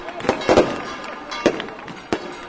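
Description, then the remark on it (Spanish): Fireworks rockets bang in quick succession at the sanctuary of El Rocío, several sharp cracks spread irregularly over a couple of seconds against a constant crowd murmur and the ringing bells of the sanctuary's bell tower. “Ya suenan los cohetes, las campanas del campanil de este santuario”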